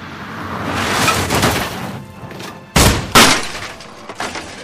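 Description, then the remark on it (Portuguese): A box of old toys, thrown from a car window, slams hard into a wall and then thuds down onto the floor, two loud impacts in quick succession after a stretch of rattling, rushing noise. “A caixa bate contra uma parede e cai no chão.”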